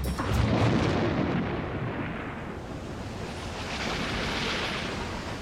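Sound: thunder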